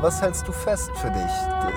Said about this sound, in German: Das war ein Krankenwagen.